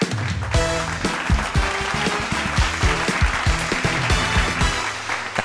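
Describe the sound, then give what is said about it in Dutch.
An audience applauds the evening's expert guest steadily for several seconds, a dense wash of clapping hands with a few louder claps standing out, while a low musical tone sustains underneath. “Een applaus voor de expert van vanavond,”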